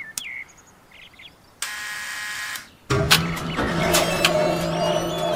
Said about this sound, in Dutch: Och, moet je kijken, dat hek gaat automatisch open.